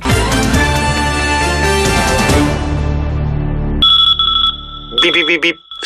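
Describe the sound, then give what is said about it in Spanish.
After a loud, dense burst of music fades out, a bright electronic beeping rings clearly: a steady tone, then warbling, trilling beeps, like a phone ringtone. “Si al ir a comprar por internet te suena este bip, bip, en tu cabeza y decides comprar a empresas españolas, damos este anuncio por bueno.”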